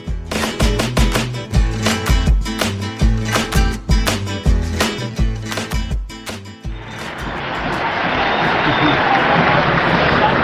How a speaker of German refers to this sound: Mit einem Applaus werdet ihr empfangen.